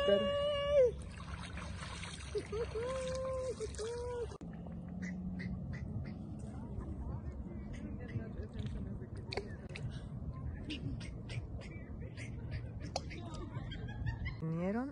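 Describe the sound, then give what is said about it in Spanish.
Continuous trickling and lapping of water stirred by people swimming, with soft splashes throughout and brief voices near the start. “Estamos aquí nadando en el agua Deliciosa el agua.”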